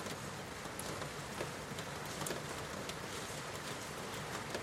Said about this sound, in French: Écoutez comment ces gouttes construisent ce fluide, ce liquide qui coule sur la fenêtre. Comment cette eau tapisse cette surface lisse et transparente.